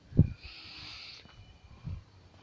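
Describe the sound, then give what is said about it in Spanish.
A small bird calls: two short, low, hooting notes spaced well apart, moderately loud, over a faint steady background hiss with no talking. “Antes de empezar a grabar eh, este episodio de hoy, coño, hay un pajarito que está nos jugando dándole ahí, weón, me está desconcentrando intentando llegar a mi momento zen y espero que ese esto no me la joda.”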